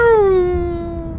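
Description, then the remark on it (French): A racing car roars past in front of the listener, its loud, steady engine whine sliding downward in pitch as it goes, one continuous sweep with no voices. “Le souvenir que j'en ai, c'est le bruit des moteurs aigus, et puis quand ils passent devant nous, le bruit devient plus grave.”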